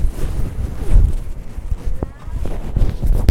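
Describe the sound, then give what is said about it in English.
Muffled rustling and scraping of clothing rubbing against a field recorder carried in a coat pocket, with low rumbling thumps and brief scratchy bursts continuing throughout. “I can kind of hear it, but it's a lot of clothes ruffling.”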